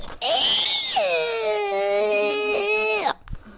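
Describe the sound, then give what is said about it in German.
A loud, sustained high-pitched shriek from a person imitating a girl's scream, held for about three seconds with a slight pitch drop. “Ich kann halt gut kreischen wie ein Mädchen.”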